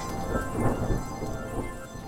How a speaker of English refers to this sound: but before that, can we please have the storm in a podcast jingle? Oh right. Storm in a podcast.